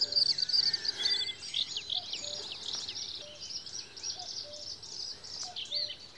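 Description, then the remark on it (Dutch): Birdsong of high, thin ti notes repeats in a steady string and then continues in a busier chirping phrase, outdoors in the Tetjehorn nature area with no one talking. “Die begint altijd met ti, ti, ti, ti, ti, ti, ti, En dan gaat die verder.”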